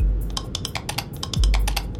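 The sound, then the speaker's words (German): Rapid, uneven key presses clatter on the keyboard of a lunar module's guidance system as numbers are entered, a dense run of sharp clicks with a low rumble droning beneath throughout. “Lovell tippt die Zahlen ein und beobachtet, wie das Leitsystem der Mondlandefähre zum Leben erwacht.”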